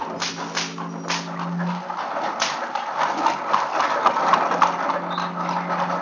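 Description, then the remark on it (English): Horse hooves clop steadily as heavy horse-drawn wagons roll out of a courtyard and down a rocky way, wheels rumbling and rattling, with whips cracking and a low droning undertone beneath the busy, clattering movement. “In the courtyard and down the rocky way, the roll of heavy wheels, the crack of whips.”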